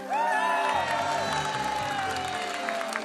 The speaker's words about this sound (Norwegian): Den nye regjeringen møtt med hurrarop og applaus på Slottsplassen i formiddag.